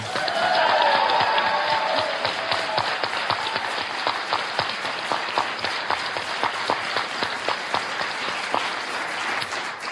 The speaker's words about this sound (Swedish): Jag vill att ni ger en varm applåd till kvällens vikarierande musiklärare och Flumskolans alldeles egna Paul Schäfer, Anders Flanders ensamorkester.